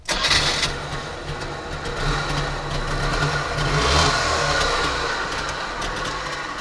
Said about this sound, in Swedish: Vi hörde ljudet av en startande Trabant som jag fick ratta i hallen. Och jag måste säga att det var verkligen en kul upplevelse. Trabanten tillverkades mellan 1957 och 1991 och blev Östtysklands populäraste bil.